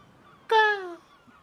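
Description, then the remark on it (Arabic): A single harsh, descending seagull cry rings out clearly for about half a second, loud, with quiet surroundings before and after. “هدوء نورس”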